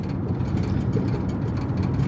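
A steady, low engine rumble fills the cabin of a car, a continuous droning hum with no breaks and no voices, heard from inside the vehicle.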